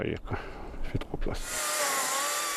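An electric chainsaw used by forest workers in the town forest of Blieskastel whines steadily at high pitch, cutting into wood after a short stretch of knocking and rustling, fairly loud with a constant droning tone.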